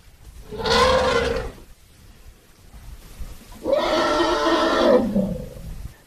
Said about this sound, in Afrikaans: Daai klink vir my na nou, hmm. 'n olifant wat baie kwaad is. Nee, gewoonlik is dit 'n klein olifant wat wil drink. Soos die maan nie stil staan nie, dan sal hy so op die maas skree om te wil drink. Na hy skree dan staan die maas stil.